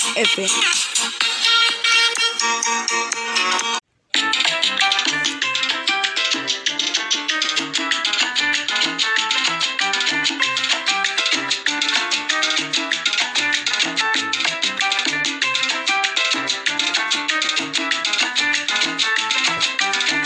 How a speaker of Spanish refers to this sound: Recuerden que esto es radiosonrix.fm y nos despedimos con esta hermosa canción